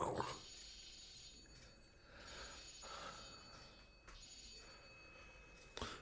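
A woman's mobile phone ringtone in a film plays in repeating bursts of bright electronic tones with short pauses between them, fairly quiet, ending with a brief sharp click.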